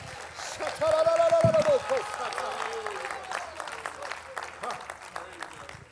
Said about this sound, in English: Come on, let's clap our hands to the Lord right now.